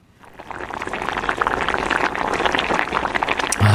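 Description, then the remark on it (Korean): A pot of Korean stew (jjigae) bubbling steadily, with dense crackling and popping across a broad range, fairly loud, continuous for a few seconds without any voices. “찌개 끓는 소리군요.”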